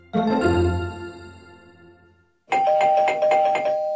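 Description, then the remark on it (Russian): A doorbell chimes with a long, ringing tone that slowly fades, then after a short pause a second, buzzier electronic doorbell rings in a rapid repeated pattern. Loud, no talking. “Кажется, к нам кто-то пришел Мама пошла открывать дверь”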